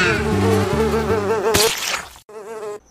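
A housefly buzzes loudly, its whining pitch wobbling as it circles. A sharp burst cuts in midway, then a brief silence before the buzzing returns.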